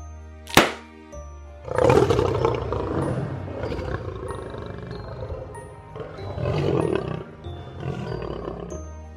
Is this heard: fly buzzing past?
no